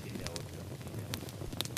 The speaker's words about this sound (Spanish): El fuego convoca, nos reúne y se cruzan las historias. Crepitar. Un leño enciende a otro.